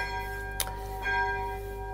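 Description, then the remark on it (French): A church bell rings on its own, its long humming tones hanging steadily in the air while a fresh clang strikes partway through and swells the sound again. “Parce que certains m'avaient dit que même avec la cloche, ils m'entendaient bien.”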